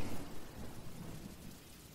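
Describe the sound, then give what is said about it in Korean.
Steady rain falls continuously, a dense, even hiss with a low rumbling undertone, fairly soft and constant throughout with no voices. “빗소리도 조금씩 들리고 있어요.”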